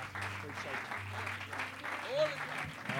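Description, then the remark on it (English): A church audience applauds steadily, the dense clapping filling the room while a voice calls out over it and a low instrumental hum sustains underneath. “come on, I wonder, would you give that hand clap to the Lord tonight?”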